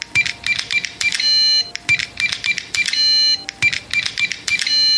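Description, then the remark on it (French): Rapid electronic beeps from the buttons of an electronic keypad securing the lock of a café's hidden back door, pressed in quick clusters with short pauses between as someone tries to enter the code, clear, with no voices. “Ce bruit correspondait aux touches du clavier électronique qui sécurisait la serrure de la porte dérobée.”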